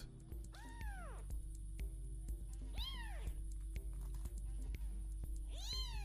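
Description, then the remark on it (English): Three high-pitched kitten meows, each a rising-then-falling mew, spaced a couple of seconds apart, over a steady low background hum. “Man, it really wants to play with those kittens, though.”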